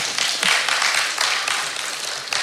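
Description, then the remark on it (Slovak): An audience applauds steadily, a dense wash of many hands clapping at once that fills the whole stretch at a fairly even loudness, with no voices over it. “Ďakujem za potlesk.”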